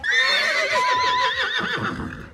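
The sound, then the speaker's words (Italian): A horse whinnies loudly, a single long quavering neigh with a wavering, shaky pitch that trails off after about two seconds. “Tieni un cavallo in casa tua.”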